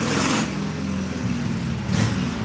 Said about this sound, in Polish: Nie, tutaj ktoś, wiecie, na motorynce pojechał. Dźwięk zaczęło zrywać.